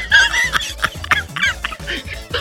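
A run of short, chattering clucks from a chicken or rooster, moderately loud, uneven bursts with pitch wobbles and no crow, over a low steady hum.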